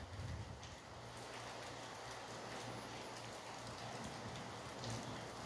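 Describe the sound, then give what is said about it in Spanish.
Steady rain falling, a dense continuous patter of drops hitting surfaces, with a low rumble underneath and no voices, holding at an even level throughout. “Escucha la lluvia.”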